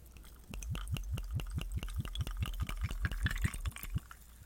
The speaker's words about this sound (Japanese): 今からここでですね、ウイスキーを入れて、コークイらしきものを作ろうと思いますね。ウイスキーはブラック日課スペシャル。ブラックッカスペシャルでございます。